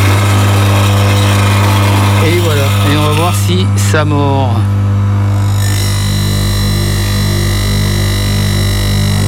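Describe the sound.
A grinding-wheel sharpener motor runs with a loud, steady hum throughout while a man speaks briefly over it, a blade fixed on the frame and set slightly back from the wheel; near the end a harsher, hissing grind joins the drone.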